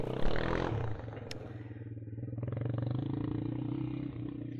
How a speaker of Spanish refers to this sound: Entonces aquí me puse poquito en pausa porque andaba una persona en motocicleta. no va a ser que me atropelle.